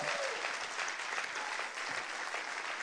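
Audience applause for the church's audience secretary fills the whole stretch, a steady, dense wash of many hands clapping at an even loudness without pauses or a clear rhythm.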